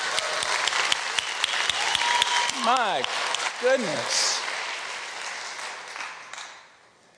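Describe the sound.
An audience breaks into sustained applause for the Lord during a sermon, a dense crackle of many hands clapping for several seconds before tapering off, with a voice calling out over the clapping.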